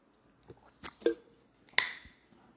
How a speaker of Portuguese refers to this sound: Bom, pessoal, jornada do cliente é o seguinte, deixa eu só beber uma água aqui.